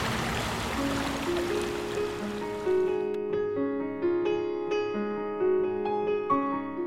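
Water rushes steadily through a fish bypass channel at a hydropower plant, a broad hiss that fades away after a few seconds as soft melodic tones rise and take over.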